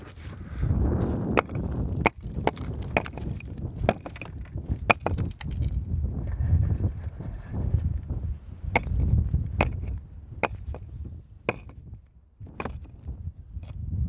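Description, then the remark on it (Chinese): Footsteps crunch over a pile of roof tiles in the ruins of an abandoned factory, each step bringing sharp clinks and scrapes of shifting pieces over a steady low rumble, with no one speaking. “现在我就正在走在他们的瓦堆上。”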